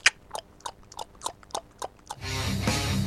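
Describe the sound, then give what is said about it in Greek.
A voice imitates horse hooves with about seven crisp tongue clicks in a steady clip-clop rhythm, followed by a burst of loud rushing noise. “Θα μου πείτε γιατί του όρχη τώρα κάνει σαν τον Τωρί το άλογο, γιατί δεν είμαι πολύ καλό στο εφέ.”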